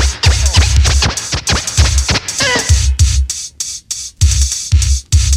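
Turntable scratching by a DJ, with rapid choppy record cuts over a thumping beat, loud, the back-and-forth scrapes repeating in tight rhythmic bursts with no one talking.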